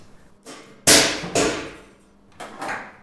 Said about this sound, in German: Wir lassen ein definiertes Gewicht, in dem Fall 2 Kilo, von einer bestimmten Höhe fallen. Das und weitere Tests lassen Schlüsse zu auf die Explosionsfähigkeit eines Stoffs.